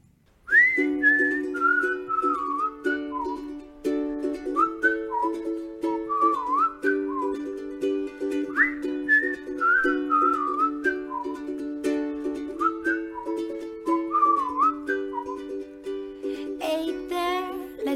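A bright whistled melody of repeating, gently falling phrases rides over steady pop chords, playing continuously and clearly with no singing yet.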